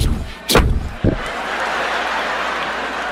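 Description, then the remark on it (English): Two car doors slam shut about half a second apart, both loud, the second one duller, followed by a steady wash of background noise. “White people get out the car when the police get out. You hear two doors shut.”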